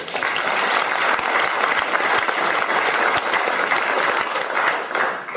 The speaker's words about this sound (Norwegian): Velkommen igjen. Applaus.